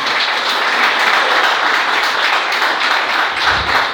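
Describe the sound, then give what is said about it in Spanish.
A crowd gives an applause to the Lord in the morning, clapping steadily: a dense wash of many hands clapping at once, loud and sustained for the whole stretch with no voices over it. “Denle el aplauso al Señor, por favor, esta mañana.”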